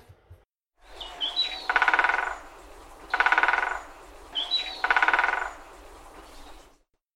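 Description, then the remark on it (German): A woodpecker drums on a tree's bark in three loud, rapid rolls, each lasting under a second with short pauses between, with no talking. “muss irgendwo ein Specht sein.”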